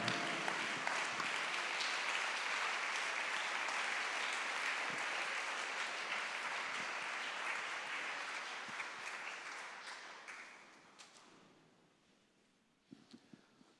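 A standing audience applauds Jesus in a sustained, dense roar of clapping that holds steady for about ten seconds, then thins and fades, with a few scattered claps at the end.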